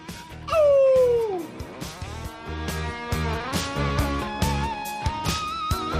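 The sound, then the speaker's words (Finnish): A loud, squealing electric guitar pinch harmonic wails and bends downward near the start, then quick runs of fast licks ripple over a steady, pulsing band groove with drums and bass. “Ja siinä esitteli jo taas, otti pinch otti niinku tavallaan niinku äänen, otti siitä niinku sormella ja sitten pinch harmonic päälle ja sitten niinku tilutukset ja kaikki.”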